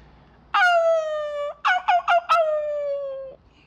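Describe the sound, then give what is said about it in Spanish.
A person imitates a dog's high-pitched squeal: a long, nasal whine, then a few quick choppy yelps, then another drawn-out whine that sinks slightly in pitch. Loud, with no other talk. “En ese momento que le pasa el billete, el señor escucha un chillido. El chillido es más o menos así, así, más o menos así.”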